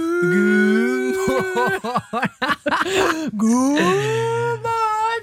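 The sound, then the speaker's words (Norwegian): A human voice imitates a cow's moo: a long, drawn-out lowing call, broken in the middle by a wobbling, laugh-like stretch, then sliding down into a deep, sustained moo. “God morgen, ku! Den hadde vi lett inne.”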